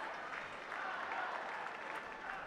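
A large tennis crowd applauds steadily, acclaiming Carlos Alcaraz as he packs away his rackets, a dense wash of clapping with some cheering mixed in, holding at an even level throughout.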